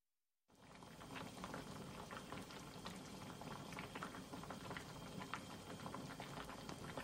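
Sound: soup boiling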